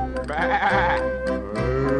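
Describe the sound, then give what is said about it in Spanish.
A lamb bleats twice in a row, each call a loud, wavering, nasal cry, with steady instrumental music playing underneath throughout. “Bebe, bebe, dice el borreguito”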